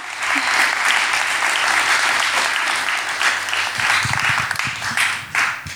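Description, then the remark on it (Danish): Loud, sustained applause from an audience as a guest is welcomed, a dense wash of many hands clapping that holds steady for several seconds before beginning to thin out near the end. “Vi øh, nu øh, klappede publikum så højt, at, øh, at jeg ved ikke, om det blev tydeligt, hvordan jeg sagde dit navn, men jeg tror faktisk, jeg sagde det rigtigt.”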